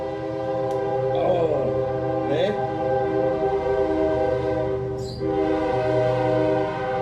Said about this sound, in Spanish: Apenas saludamos un evangelista y se oyen los chofares y se oyen los gritos de guerra y de victoria.